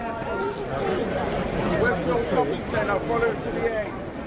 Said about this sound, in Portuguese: Esse é um áudio do Parque Olímpico de Londres, áudio original da época